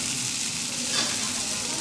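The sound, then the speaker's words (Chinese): Steady, crackling sizzle of spicy beef frying on a hot plate, a dense hiss with tiny pops throughout and a slight swell near the middle, with no voices. “麻辣牛肉是吧？大家能听见吧？这滋滋啦啦的声音，流口水了。”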